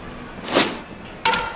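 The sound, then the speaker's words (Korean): A brief whoosh, then a single sharp, ringing crack as the Vintos cleanup hitter's bat strikes a baseball, driving it toward the third-base side for a hit. The crack is fairly loud, with a short metallic ring trailing off. No voices. “쳤습니다 3루 내야 쪽으로 길게 밀어낸 공 안타입니다 안타 3루 주자 또다시 홈베이스를 밟습니다 3대0”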